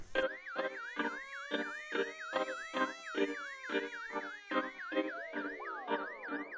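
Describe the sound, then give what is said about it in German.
A loud electronic alarm siren wails alone, a rapidly warbling tone riding over a steady, pulsing beat that repeats about twice per second throughout. “Deswegen folgt jetzt der Spoiler-Alarm.”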